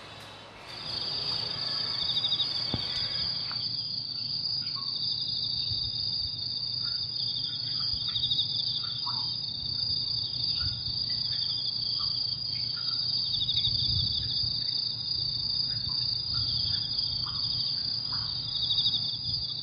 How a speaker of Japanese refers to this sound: こんな感じでね、あの橋の上から取ってきました。はい、はい、ありがとうございます。いすね、はい、皆さんぜひね、あのー、自然を楽しんでいただきたいなと思って、今日コオロギの音を取ってきましたんで、はい、皆さんもぜひどうぞ。